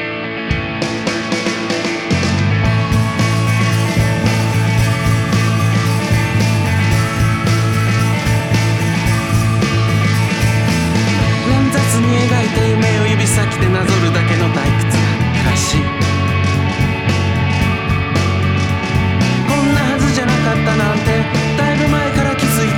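A full band song plays continuously at steady volume, with drums, bass and layered instruments kicking in after a brief intro, and a singing voice carried over the dense mix.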